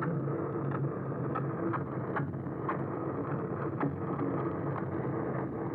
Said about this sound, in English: so like boats, which is actually the most pervasive sound in the ocean.